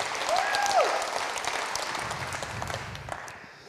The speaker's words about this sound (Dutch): Dit applaus was voor jou. Want dat is wat Jezus deed. Hij applaudisseerde voor jou.